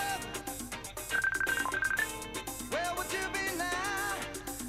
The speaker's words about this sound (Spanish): Pero ya me llama la gente por videollamada en el WhatsApp este, en el...